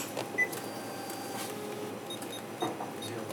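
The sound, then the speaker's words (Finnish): A few scattered taps on cash register keys, each with a short electronic beep, over a steady low background hum in a quiet shop. “Haluatko että mä tämän painelen näin, että kuulostaa?”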